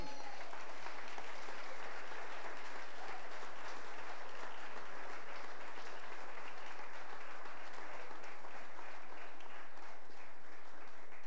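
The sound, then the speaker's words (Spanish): An audience applauds the Lord during a sermon, steadily for about eleven seconds, a dense, even wash of many hands clapping with no individual claps standing out and no voices on top. “Y si usted lo cree, démosle un aplauso al Señor.”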